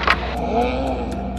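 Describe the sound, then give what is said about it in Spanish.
A steady low engine rumble with a broad wash of road noise from traffic on a city-centre street packed with cars in front of an old jazz club, with a few faint clicks and no clear single car passing by. “La calle frente al viejo club de jazz estaba repleta de coches.”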